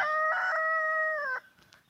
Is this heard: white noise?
no